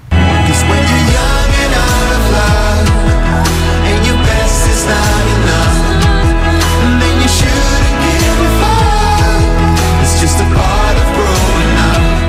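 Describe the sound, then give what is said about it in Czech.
A loud, full-band Czech pop-rock passage from a newly released song, with driving drums, layered guitars and synths, and a broad anthemic sound, playing continuously at steady high volume with no talking over it. “něco, co je venku čerstvě a něco, co zní podle Klárky Miklasový jako …”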